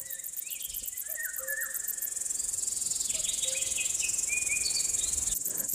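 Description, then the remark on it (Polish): A dense, steady chorus of insects chirps and buzzes across a hot summer meadow at noon, with a high pulsing trill throughout and occasional softer calls weaving in, no voices present. “To są absolutnie prawdziwe, te najprawdziwsze dźwięki upalnego lata, upalna łąka w letnie południe.”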